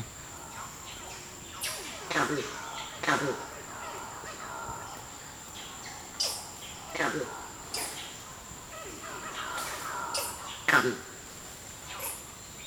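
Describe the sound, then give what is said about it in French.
Alarm calls of an adult male Campbell's monkey, a West African monkey: a series of short, rough calls repeated at irregular intervals, over a steady high-pitched buzz of insects in the background. “Et le mâle adulte a dans son répertoire vocal six cris d'alarme différents.”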